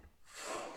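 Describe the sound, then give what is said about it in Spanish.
A short, soft whoosh as an email app sends a test email: airy noise that swells in quickly and trails off within a second, heard on its own with no voices. “Ese es el sonido de envío.”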